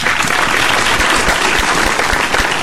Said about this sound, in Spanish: Aplaude, aplaude El público.